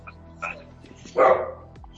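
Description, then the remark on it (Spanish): A female dog in heat barks at a window, calling to other dogs: a short softer yelp followed by one louder, drawn-out bark, with no one talking over it. “No, está alzada y está en la ventana llamando a los perros.”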